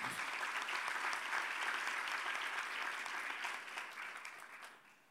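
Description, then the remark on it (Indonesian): An audience gives another round of applause for the Lord Jesus, clapping steadily for several seconds, a dense wash of many hands clapping at even loudness before gradually tapering off at the end. No one speaks. “Yang setuju berikan tepuk tangan sekali lagi bagi Tuhan kita Yesus.”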